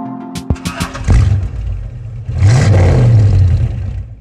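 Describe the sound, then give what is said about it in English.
A car engine cranks with a few clattering turns, catches, and settles into a loud, steady rev and idle, with the pitch rising as it revs. “Here's the sound of a car starting.”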